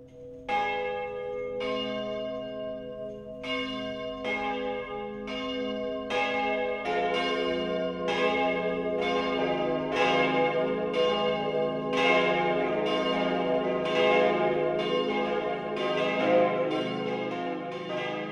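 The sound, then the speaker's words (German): The noon ringing of the bells of the parish church St. Andreas in Parsberg, Upper Palatinate, Germany: several church bells ring together in a continuous overlapping peal, repeated strikes building into a dense, resonant wash of bright and deep tones that fills the whole stretch with no voices present. “Das Mittagsläuten kommt heute von der Stadtpfarrkirche St. Andreas im oberpfälzischen Parsberg.”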